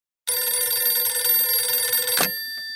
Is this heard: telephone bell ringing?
yes